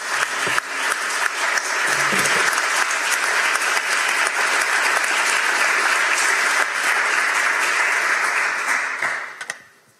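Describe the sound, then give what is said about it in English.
A crowd bursts into another round of sustained applause, dense and steady clapping at a loud, even level for about nine seconds before tapering off quickly at the end. “Before I even say good evening, can we please give another round of applause for that amazing?”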